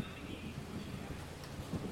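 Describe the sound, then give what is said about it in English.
Steady falling rain hisses over a deep, rolling thunder rumble, a continuous stormy wash at a moderate level with no voices. “The rain is falling, thunder and lightning are crashing as uh,”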